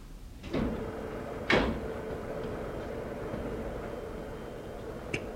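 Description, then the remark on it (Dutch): A laboratory door opens with a scrape and a sharp clunk near the start, then a quiet, steady hum carries on until a small click near the end. “zeker dat dit de deur van het laboratorium is, meneer?”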